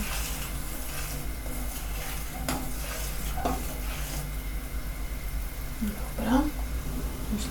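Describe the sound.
Soup that is just starting to boil being stirred in a pot on a gas stove, with a few spoon scrapes and swishes over a steady simmering hiss, and a faint voice murmuring briefly near the end.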